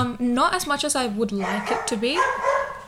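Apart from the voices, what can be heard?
dog barking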